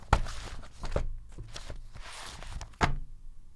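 A thick stack of paper, a 67-page access-to-information request document, is handled: irregular rustling flips and soft thumps, with a sharper slap near the end. No voices are heard.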